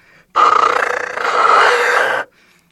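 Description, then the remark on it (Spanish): A jaguar whistle, a wind instrument that sounds rough because the small capsule underneath is not properly oriented, imitating a jaguar's roar: one loud, harsh, raspy blast lasting about two seconds, with a gritty, fluttering texture and a slight swell midway before cutting off. “Entonces el mismo instrumento, pero ya como suena áspero, entonces dicen, no, pues el sonido del jaguar, ¿no?”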